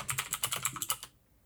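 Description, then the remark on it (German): Rapid typing on a computer keyboard, a quick run of about a dozen crisp key clicks lasting about a second, clear, then stopping into quiet. “Boah, dein Tippen lenkt mich voll ab, aber okay.”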